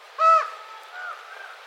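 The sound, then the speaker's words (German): A raven calling other ravens to food gives one loud, ringing call, followed by two softer, drawn-out calls, with no talking. “Dieser Rabe ruft gerade seine Artgenossen zum Futter.”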